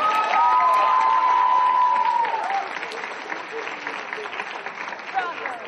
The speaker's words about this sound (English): So, and uh, mine goes to entry number five, the Sailor Moon in the skit. So, come on up, get your money. Give her a big round of applause, guys.